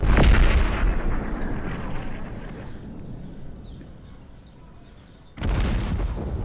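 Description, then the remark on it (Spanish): Two heavy cannon blasts during the long siege of Cádiz, Spain, cannons bombarding the city. The first booms and rolls into a long, slowly fading rumble before a second loud shot bursts out near the end. No voices are present. “Cádiz fuertemente protegido por mar gracias a las tropas inglesas y españolas y custodiada por tierra gracias a las marismas y las salinas, resiste un largo asedio que consiste principalmente en cañonear la capital.”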